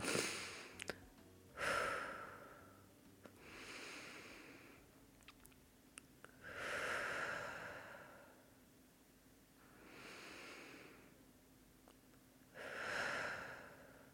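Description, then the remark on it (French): Slow, deep breathing, with about six long airy inhales and exhales rising and falling in a steady, unhurried rhythm and no talking. “Je t'invite aussi à avoir fait de même sur ces quelques secondes de respiration.”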